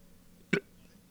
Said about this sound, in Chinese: 我打嗝一下